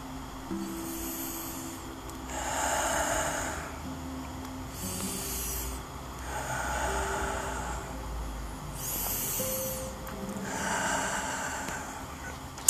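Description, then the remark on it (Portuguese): Three slow, deep breaths taken while sitting in a comfortable place, each a long airy inhale followed by a gentle exhale, with a faint steady hum underneath and no talking. “Após estar no seu lugar confortável, puxe três respirações profundas.”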